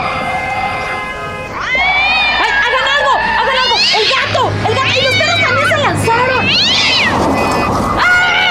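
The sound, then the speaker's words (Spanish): A cat meows and yowls repeatedly in drawn-out, rising and falling cries, loud, with a steady low hum underneath and no clear talk over it. “El que se dejó venir fue el gato.”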